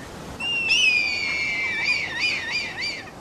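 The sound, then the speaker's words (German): A red kite's call: a long, high, steady whistle that sways slightly, then breaks into several quick, wavering trills toward the end. Clear and fairly loud, with no voices. “mit einer sehr, sehr großen Spannweite und einem echt spektakulären Flug und äh, einem Ruf, der mich so ein bisschen an den Pfiff ähm, eines Schaffners bei der Abfahrt des Zuges erinnert.”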